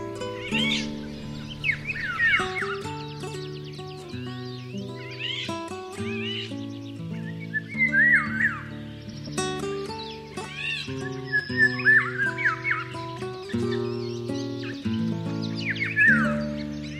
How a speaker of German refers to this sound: Das war der Pirol.